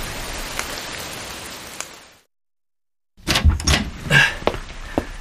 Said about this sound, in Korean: 금세 그칠 비가지났네요